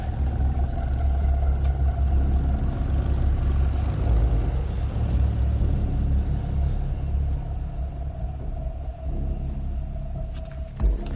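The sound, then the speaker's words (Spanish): A taxi's engine rumbles steadily through a parking garage, a deep continuous drone that holds its level throughout, with a brief sharper knock near the end and no voices. “El taxi se acerca y se esconden tras dos columnas.”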